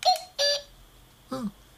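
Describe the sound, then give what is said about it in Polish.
An alarm clock plays short snippets of its selectable wake-up melodies after a button press: two bright, electronic chiming bursts in quick succession, then a pause and a lower, buzzier tone. Fairly quiet, with no talking. “To jest wybór melodii, to jest wybór sygnałów budzenia, które chcemy, aby nam zegar no po prostu zabudził.”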